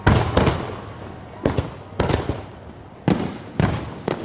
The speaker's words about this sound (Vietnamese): Khoảnh khắc chuyển giao giữa năm 2023 và năm 2024 đầu tiên đã diễn ra tại Tonga, Kiribati và Samoa cùng New Zealand với những màn pháo hoa rực rỡ và âm thanh đếm ngược của người dân tại các khu vực này.